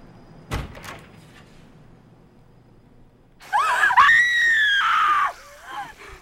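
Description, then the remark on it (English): A sharp thud sounds, then after a quiet pause a loud, sustained shriek of screaming lasts about two seconds before trailing off into softer cries, from the horror film Texas Chainsaw Massacre playing on a TV. “One of my favorite, uh, perfect little, perfectly lit tableaus with the sound of Texas Chainsaw Massacre as I think we said before”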